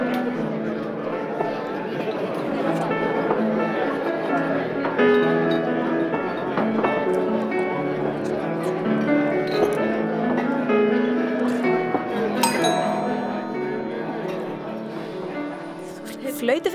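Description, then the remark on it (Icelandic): A pianist plays piano notes steadily beneath a continuous murmur of many voices in a fine restaurant, with occasional bright clinks of glasses cutting through the background chatter. “Við erum stött á fínum veitingastaf þar sem undurfærir tónarir spilaðir á piano en í bland við skvaldur og klingandi glös er kannski svolítið erfitt að heyra hvaða lag píjánuleikarin er að spila.”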